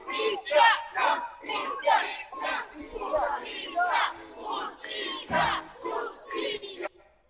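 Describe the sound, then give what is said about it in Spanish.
A protest march crowd chants in unison demanding justice, rhythmic shouted phrases repeating in bursts of roughly half a second, loud, with a slight echo and brief pauses between lines before stopping abruptly. “Dejamos esa imagen de exigencia de justicia.”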